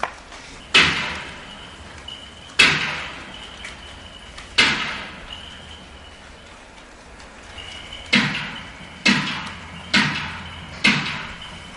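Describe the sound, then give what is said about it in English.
A cricket bat strikes a wooden door seven times, recorded 60 meters from the door: three spaced, echoing thuds to test sound levels, then four sharper blows in quick succession, each trailing off into a reverberant decay. “The first three blows of the cricket bat were done to test the levels of the sound, and then I did four in rapid succession.”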